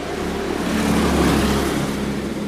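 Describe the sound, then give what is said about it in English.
A small kart engine drones steadily as someone drives practice laps on a little motor racing track, its buzzing pitch swelling slightly toward the middle, with no voices present. “and there's somebody in a cart doing some practice, practice laps.”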